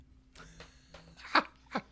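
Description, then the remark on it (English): A short run of coughing: a few soft, breathy bursts, then two sharp, louder coughs close together at the end, with no talking. “All right, I'm going to say books and comic books and then I'm going to lean away and cough.”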